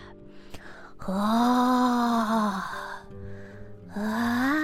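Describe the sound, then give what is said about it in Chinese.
A voice imitates yawning with a long, loud, drawn-out "ahh" that rises and then sinks in pitch, followed after a short pause by the start of a second yawn. “唯一会溜出来的。就是家家户户传来的哈欠声，啊，”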